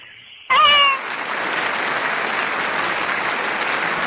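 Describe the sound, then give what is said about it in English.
A crowd applause sound effect played after a correct answer in a guessing game: steady, dense clapping that begins abruptly and carries on loudly to the end, opening with a brief high, wavering cry much like a cat's meow. “The crowd likes that.”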